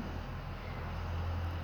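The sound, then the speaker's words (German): A steady, low tractor engine rumble drones in the background, a continuous throbbing hum, with no talking over it, heard from a terrace on a sunny day in May. “ihr hört den Trecker im Hintergrund, ne?”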